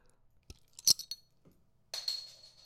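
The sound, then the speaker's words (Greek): A few sharp metallic clinks and taps of a keychain opener on a beer bottle, followed by a hissing release of gas as the cap comes off. No one speaks. “Έχεις, μου έχει δώσει το, το ανοιχτήρι που είναι στα κλειδιά σου.”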